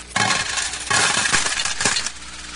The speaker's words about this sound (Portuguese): Aquele pessoal, eles tinham várias cornetas daquela de metal afuniladas e as pessoas chegavam ali e jogavam as suas ofertas. O barulho era mais ou menos esse.